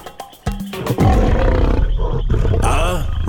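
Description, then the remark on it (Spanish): A lion roars loudly, a deep, rough, sustained growl that surges in after a brief, quieter lead-in of scattered thumps and grunts and then holds strong to the end. “se fue a lo grande, a negociar con. los leones.”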